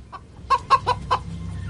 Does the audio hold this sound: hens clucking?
yes